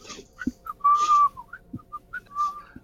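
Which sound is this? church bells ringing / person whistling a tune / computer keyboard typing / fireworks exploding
person whistling a tune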